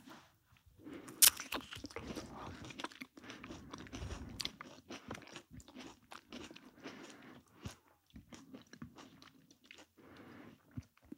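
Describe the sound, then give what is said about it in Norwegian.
Biting into a fuzzy-skinned kiwi eaten with its skin on, followed by steady wet chewing and crunching with frequent short clicks and squishes, continuing for several seconds with no talking. “Du må liksom bare ta en tygg av skallet og Ok.”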